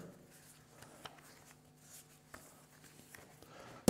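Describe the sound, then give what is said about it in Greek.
Quiet rustling and shuffling of papers as someone searches for a lost sheet of notes, with scattered soft crinkles and small taps as sheets are moved about, over a faint steady hum and no talking. “Λοιπόν, τώρα έχασα ένα άλλο χαρτί. Εδώ άλλε σημειώσει με τα γκολ. Πρέπει να τα βρω και αυτό ρε.”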